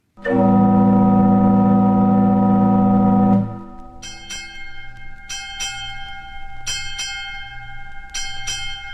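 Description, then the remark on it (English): A loud, deep sustained theater organ tone gives way to a ship's bell struck in quick pairs, four pairs in all for eight bells, each ringing clearly with a lingering metallic shimmer. “Let's get the bells ready to ring.”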